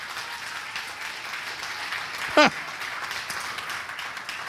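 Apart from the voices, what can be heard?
audience applause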